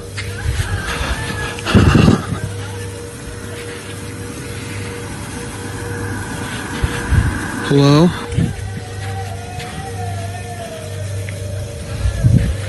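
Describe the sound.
Ragged, frightened breathing with a few sharp, shaky gasps at irregular intervals, one briefly voiced, over a steady low hum and a faint noisy background.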